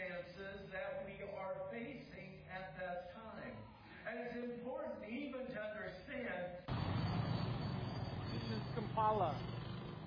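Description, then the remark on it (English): Voices carry through the first part, then loud, steady city street traffic in Kampala cuts in abruptly, a broad engine and road rumble recorded out the side of a van, with a brief higher tone near the end. “not get enough good video of what traffic's like in Kampala.”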